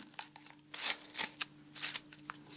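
Crisp rustling of several rolled paper notes, tied with a white ribbon, being handled and unfurled as the ribbon is opened, coming in several short crackly bursts and swishes over about two and a half seconds, with no talking.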